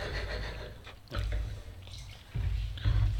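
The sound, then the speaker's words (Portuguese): Water is poured into a wine-stained glass in a few gurgling, splashy bursts, moderately loud, with brief pauses between pours and no one speaking. “Água, o copo está avinhado, pá.”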